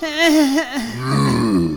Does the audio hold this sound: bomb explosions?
no